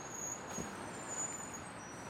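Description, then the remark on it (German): A bus pulls away, its steady broad engine rumble joined by a thin, high whine for about two seconds, with no voices. “Musst mich nicht gerade aus dem Bus stoßen!”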